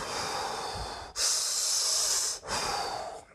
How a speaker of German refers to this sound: Das heißt, wir atmen tief in den Bauch, dann in den Brustbereich und dann bis hier oben. So, und das macht Wim Hof 30 Mal oder 40 Mal